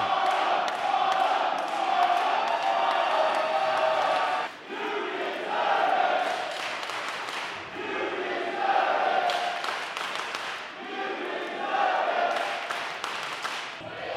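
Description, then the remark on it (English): At a PWX wrestling tournament, a large crowd chants "Harlem" in unison for wrestler Harlem Bravado, loud and sustained, with voices rising and falling in a repeated rhythmic pattern and brief dips between phrases, all over a dense roar of cheering. “Listen to this crowd chant Harlem.”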